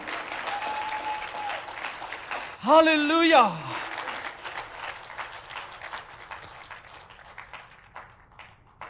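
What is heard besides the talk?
audience applause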